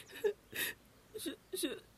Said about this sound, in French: Ne pleure pas, mon enfant.